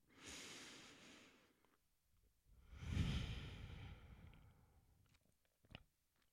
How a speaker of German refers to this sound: Und weil das so leicht ist, lass uns gerne noch mal ein paar Atemzüge hinten dranhängen und um einfach nur mal hineinzuspüren.